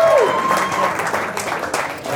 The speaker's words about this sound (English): I still feel like this is the heart of everything that's happening from a fintech and a banking perspective. It kind of feels like, and I, and I, like, get like a bigger round of applause for that one. Surely, come on.